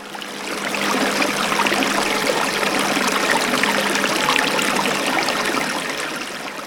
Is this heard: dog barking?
no